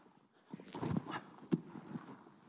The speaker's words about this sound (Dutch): En plots dan hoort hij eh, het grommel van paardenhoeven.